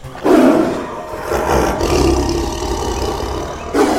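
A tiger roars loudly, a deep, rumbling growl that rolls on for several seconds before a fresh roar bursts in at the end. No one speaks.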